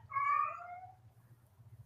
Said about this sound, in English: Oh God! Do you, do you hear this cat?